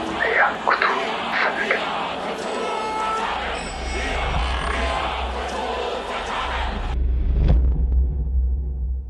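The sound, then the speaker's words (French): A deep, loud rumble of a monster awakening after sleeping for millennia, smashing its alarm clock with its tentacles, with a roaring, bellowing growl over dense noise, which cuts off abruptly into a lingering low drone and a single heavy thud near the end. “Mais il pense que c'est le réveil de Cthulhu.”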